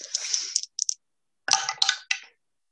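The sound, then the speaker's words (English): Dice clatter across a hard table in two quick bursts, a skittering rattle that stops, then a second sharper tumble with a few clicking bounces before settling, rolling a three. “I rolled a three.”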